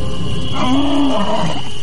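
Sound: lion roaring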